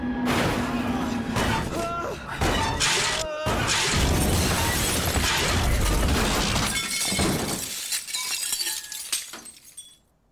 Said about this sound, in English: But there's no more time for thinking because suddenly we're crashing into the ground at 270 kilometers an hour.